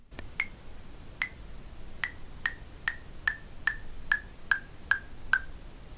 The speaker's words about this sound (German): Genauso gut könnte ich die Finger wieder nach unten ziehen, dann scrollt die Liste nach oben und der Ton müsste niedriger werden.